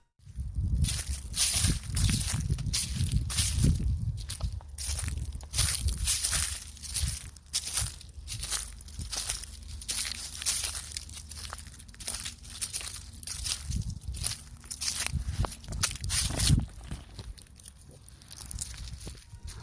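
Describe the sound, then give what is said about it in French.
Footsteps crunch through dry autumn leaves in a steady walking rhythm, fairly loud, each step a crisp rustling crackle, continuing for about twenty seconds with no talking. “Quoi de mieux que marcher dans les feuilles d'automne pour se mettre dans l'ambiance de la saison oui, c'était mon petit plaisir, je voulais faire partager.”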